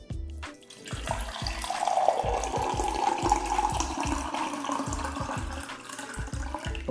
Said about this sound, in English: Well, yes, that was an empty glass being filled up, being poured into with water.